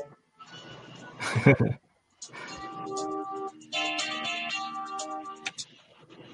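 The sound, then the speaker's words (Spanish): FM sound-chip music from a Japanese Panasonic MSX2 Plus: bright, buzzy synthesized tones play a melody of sustained notes with a short noisy burst near the start, with no one talking over it. “Y esto es un MSX2 Plus japonés, un Panasonic. Sonido FM.”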